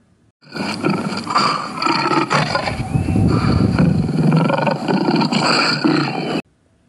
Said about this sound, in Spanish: ¿Es mi estómago? se preguntó. Pero no lo era. Era Bubesi, el poderoso león, famoso por tener el rugido más alto, la mandíbula más fuerte y las garras más afiladas de África. Bubesi rugió de nuevo.